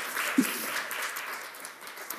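A group gives a round of applause: dense, steady clapping at moderate volume that carries on for a couple of seconds without anyone speaking.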